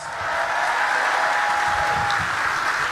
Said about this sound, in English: Clap it up for this great brother again. Yes. Give me more energy for him. This is a legend, y'all.